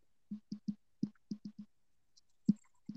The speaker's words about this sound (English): Typing, beating his computer up.